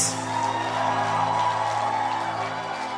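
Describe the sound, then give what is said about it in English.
A church audience shouts praise to the Lord together, a short, sustained, loud wash of many voices cheering and whooping at once for about three seconds without a break. “Oh, your shout is so short.”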